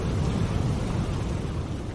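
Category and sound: nature, thunderstorm sound effect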